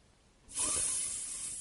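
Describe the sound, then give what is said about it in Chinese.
A snake flicking its tongue as it crawls past hisses in one long, steady, breathy rush that starts abruptly and holds at a fairly loud level until the end, bright and airy with no voices. “这时候，一条蛇从雪莉的身边爬过。他吐着芯子，嘶嘶地说：”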